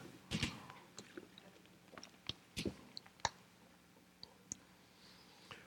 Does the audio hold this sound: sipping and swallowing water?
yes